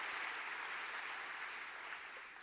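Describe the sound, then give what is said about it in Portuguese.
A crowd at a Sunday meeting applauds the volunteers of the Volunteer Ministry, a dense wash of many hands clapping at once with no pauses, holding an even level before easing off slightly at the end. “Vamos dar um aplauso para o nosso pessoal maravilhoso do Ministério de Voluntariado.”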